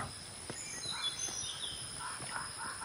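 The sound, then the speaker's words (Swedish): A dense jungle ambience with a steady high insect-like hiss, scattered bird calls and chirps rising and falling throughout, moderately quiet and continuous with no voices. “Ni vandrar genom djungeln.”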